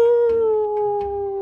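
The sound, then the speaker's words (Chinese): A single long, eerie wolf-like howl, heard by two men in a dead-end alley, holds a steady mid pitch, sliding gently downward while staying loud and sustained, with faint rough noise underneath and no talking. “就在这时，一声凄厉的嚎叫声在两个人耳边响起。”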